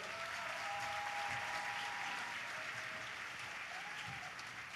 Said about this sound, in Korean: 한국 컴패션 대표 서장희님을 모시겠습니다. 큰 박수로 환영해 주십시오.